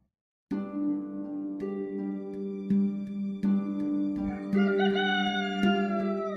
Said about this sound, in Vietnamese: Khi trời còn chưa hừng sáng Gà chỉ vừa mới cất tiếng gáy đầu tiên